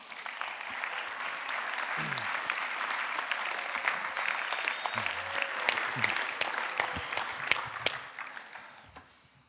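An audience applauds steadily for several seconds, a dense wash of many hands clapping with a few sharper individual claps standing out before it tapers off at the end.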